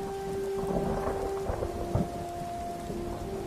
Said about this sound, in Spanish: Volvamos a oír la lluvia. La misma que nos será cruel e intempestiva.